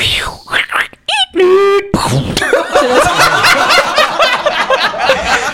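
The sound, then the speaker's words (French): A voice mimics an airplane's whining drone on a trip to Peru, then blurts a sudden noisy burst imitating the plane exploding, and a stretch of overlapping laughter follows. “c'est l'avion qui a explosé.”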